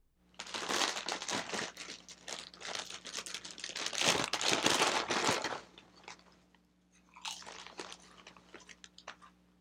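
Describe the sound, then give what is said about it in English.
A bag of Takis chips being torn open, with loud, dense plastic crinkling for several seconds, a brief pause, then a shorter burst of rustling and crunching. No one speaks. “so here's the sound of me opening a bag of Takis.”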